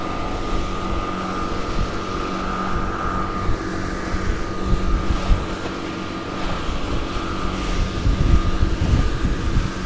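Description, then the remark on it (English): The outboard motor of a boat on a river drones steadily and loudly, a continuous rumbling engine hum with a steady tonal whine, running without pause and with no voices. “hope you can hear above the noise of the outboard motor,”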